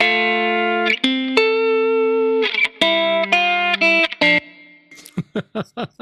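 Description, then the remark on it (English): A distorted electric guitar plays sustained, harmonically rich notes and chords through a profiled amplifier stack, then ends with a run of short, choppy palm-muted stabs. No voices. “And now we're listening to the stack and to the other.”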